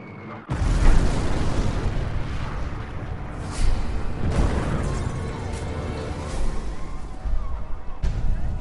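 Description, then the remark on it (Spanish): A sustained barrage of heavy explosions as B-52 bombers each drop 30 tons of bombs on the countryside: deep rumbling booms rolling one into another with sharp bursts every second or so, loud and continuous for several seconds before briefly dropping and resuming. “Bombarderos B-52 enormes, que inicialmente tenían su base en el Pacífico y luego en Tailandia, hacen su entrada. Cada uno lanza bombas de 30 toneladas sobre el campo.”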